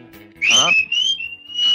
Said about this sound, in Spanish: ¿No has visto que muchos se colocan en la boca los dedos para poder chiflar?